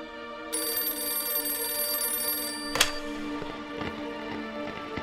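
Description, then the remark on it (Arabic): A telephone bell rings steadily for about two seconds, a bright sustained metallic trill, then cuts off with a sharp click, followed by faint clattering handling sounds; a call from Jeddah for Sharif Hussein. “واذكر ما سمعته من المكالمه”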